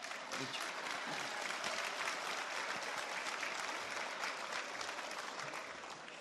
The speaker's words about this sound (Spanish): Déjame aprovechar para que aplaudan, porque aquí hay gente dura, de verdad.